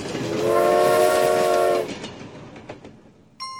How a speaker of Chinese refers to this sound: 女巫看到了一台火车。火车一直在发礼物出去。